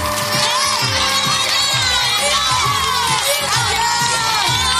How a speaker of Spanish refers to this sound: Gracias por esa ovación de gala, desde los niños hasta los mayores, vigías y centinelas de todo lo que aquí suena y la razón de nuestro existir y de nuestro subsistir.